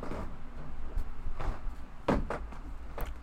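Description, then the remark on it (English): A wooden chair that is falling apart rattles and creaks in a handful of short, uneven knocks and clatters, fairly loud, with no one talking. “Chair's falling apart.”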